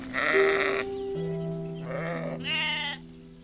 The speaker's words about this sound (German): Auf einer Weide tummeln sich Schafe